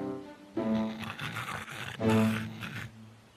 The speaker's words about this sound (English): The pig lay down behind some bushes. Soon he was snoring loudly.